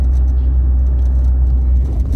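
A car engine labors with a heavy, steady low rumble, loud, droning continuously for a couple of seconds after a shift down from fifth to third gear, straining before a shift into second; no voices.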